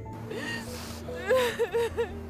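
Someone is crying in a neighbour's house in a few wavering, whimpering sobs that rise and fall in pitch over a steady low hum, moderately loud and slightly muffled.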